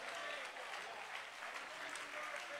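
An audience claps their hands to give God praise, a dense wash of many hands blending into continuous applause at an even, fairly loud level with a faint murmur of voices mixed in.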